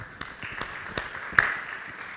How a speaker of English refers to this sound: So, thank you again. A round of applause for our worship.